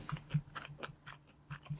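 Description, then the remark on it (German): Crunchy chewing of a sesame-coated snack ball made with peanuts and orange juice, about seven or eight moist crunches in a steady, uneven rhythm, fairly quiet with no talking. “Man muss viel kauen. Man hat viel Se äh, man hat auch Sesam zwischen den Zähnen und so.”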